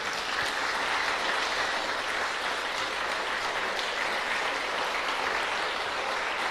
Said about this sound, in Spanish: A todos ustedes, mis queridos y amados pastores que ya están inscritos, les mandamos este saludo con nuestras manos levantadas, una sonrisa bien grande y un fuerte aplauso para todos ustedes, de todo corazón.